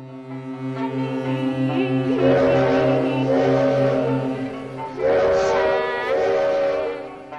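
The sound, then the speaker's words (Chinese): Ship horns from boats of many sizes sound over the Huangpu River in Shanghai, a deep pulsing horn droning underneath while higher, brassy blasts overlap it twice, each held for a couple of seconds. No voices are heard. “我那时候的感觉，哇，黄浦江真宽呐、而且有大大小小各种不同的船，各种汽笛声。”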